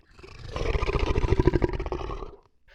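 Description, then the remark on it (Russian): A single loud robot T-rex roar swells up, holds for about two seconds with a throbbing, gravelly growl, then cuts off abruptly, with no other sounds. “На очередном круге все машинки старались быть осторожнее, но внезапно Тирекс выпрыгнул на дорогу и попытался снова схватить машинки”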